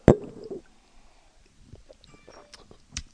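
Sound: sipping coffee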